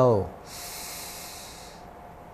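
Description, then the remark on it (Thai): During a guided Buddhist breathing meditation with the chant Buddho Dhammo Sangho, a voice trails off, then a slow, steady nasal inhale draws in for over a second, a soft airy hiss that holds evenly before fading into quiet. “หายใจออก หายใจเข้า”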